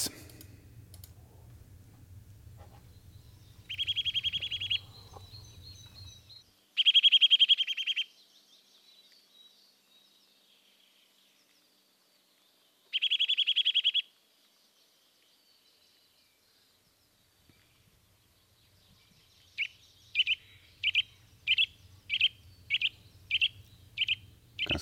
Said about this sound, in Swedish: Vi ska lyssna på Nötveckan fram och tillbaka.